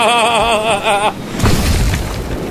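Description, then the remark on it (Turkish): A wavering, horn-like tone holds for about a second, then cuts off into a loud, rumbling crash with a deep boom and crackling debris as a ship crashes into an iceberg in the Pacific Ocean. “Çarpacağım çarpacağım. Ne çarpacağım? Buzdağına.”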